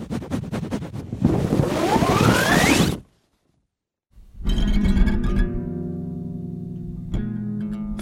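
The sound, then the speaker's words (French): A microphone scrapes and rubs against a guitar, giving a loud, broad rasping swish with a rising whine, then a brief silence before the strings ring out in a sustained, resonant hum with a small knock. “frottement micro-guitare.”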